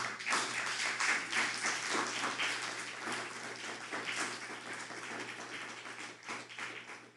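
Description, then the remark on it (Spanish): A crowd applauds the Eternal (God) steadily for several seconds, a dense wash of overlapping claps that stays fairly even in loudness and tapers off slightly at the end. No one speaks. “darle un fuerte aplauso al Eterno.”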